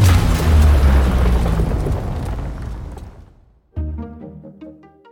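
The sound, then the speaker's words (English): A massive, aggressive movie trailer boom (the 'booge' used in suspenseful action movie trailers) with heavy low-end rumble that decays over three seconds, followed by a sudden second hit with ringing tonal overtones that sustains to the end. “So, why do so many trailers use the booge and other super aggressive sound effects?”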